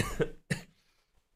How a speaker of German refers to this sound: Gesundheit.